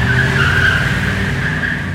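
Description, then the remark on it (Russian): A car tears off on a test drive with a loud, sustained tire squeal over a deep engine rumble, the screech holding steady for about two seconds with no voices. “Устроим тест-драйв. Поехали!”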